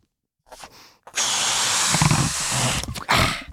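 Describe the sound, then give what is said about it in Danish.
A long blue balloon is blown up by mouth instead of with a pump: a quick intake of breath, then a loud, steady, rushing blow lasting about two seconds, followed by another sharp breath. “Øhm, han bruger nemlig munden.”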